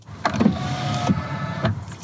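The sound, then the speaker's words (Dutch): Car side mirrors folding in and out: a steady electric motor whir with a humming tone, framed by soft mechanical clunks as each movement starts and stops. No one speaks. “Ja, want dit hoor je dus bij het in- en uitklappen van je buitenspiegels.”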